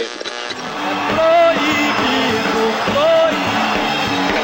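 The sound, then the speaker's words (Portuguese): An audience at a presentation boos a man giving a speech while some applaud: a loud crowd roars continuously, a dense wash of many voices with drawn-out jeering tones rising above the din, some scattered clapping mixed in, and no single speaker standing out. “E ele conversava, dialogava com as pessoas que estavam na apresentação enquanto ele era vaiado ao mesmo tempo aplaudido por alguns.”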